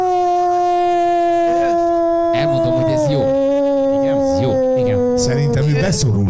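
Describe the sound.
A long, sustained wolf howl holds a steady pitch, dipping slightly midway, while several people talk and murmur over it.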